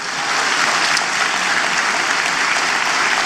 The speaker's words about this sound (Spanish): fuerte ese aplauso, vamos.